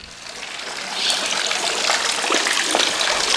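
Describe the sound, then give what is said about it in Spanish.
Water trickles and splashes steadily in a fountain in a town centre, a continuous bright babbling that swells slightly after the first second and stays prominent, with no voices. “porque ha sido increíble que mientras caminaba por la rúa podía escuchar no solo mis pasos, que es algo que si vives en una ciudad como Barcelona es muy complicado, sino que he disfrutado del cantar de los pájaros y el sonido del agua.”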